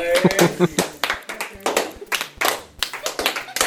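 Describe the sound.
A short burst of hand clapping, quick irregular claps from a few people, mixed with voices talking and laughing over it at a fairly loud level.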